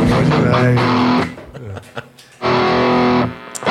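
A loud, noisy rock track plays with a dense, distorted texture, cutting out briefly in the middle before crashing back in at full volume.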